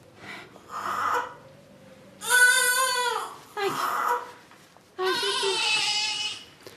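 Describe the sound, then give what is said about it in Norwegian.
An abandoned newborn baby lying on a restroom floor cries in four loud, wavering wails separated by brief gasping pauses, with no one talking. “På gulvet finner hun en nyfødt og forlatt baby.”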